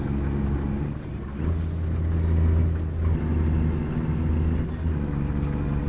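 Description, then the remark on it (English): A semi-truck's heavy diesel engine drones loud, a deep steady rumble with rich low harmonics that labors under load as the driver shifts gears, rising slightly in pitch partway through as it pulls up a steep hill on the 5 heading north toward Seattle. “Well, I don't think we all can hear it because of the engine.”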